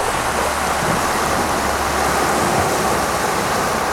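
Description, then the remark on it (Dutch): Sea surf roars steadily against the rocks of Puticillo on Corsica, a dense, continuous hiss and rumble of churning water that stays loud throughout, with no voices. “bruisend op de rotsen van Puticillo op Corsica.”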